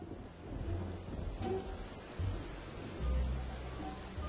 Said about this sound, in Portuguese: Dentro da fábrica, as janelas refletiam os relâmpagos da chuva forte.